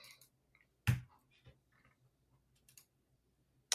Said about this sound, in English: Okay, so normal is D eight and I'm rolling four.